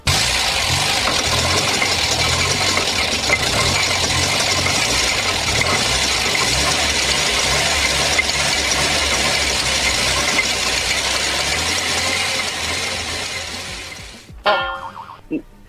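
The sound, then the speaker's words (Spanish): An old car engine runs with a loud, rough, steady rumble for about fourteen seconds, then cuts off abruptly, followed by a brief moment of voices. “Deje cambio el sonido. Este es el carro entonces.”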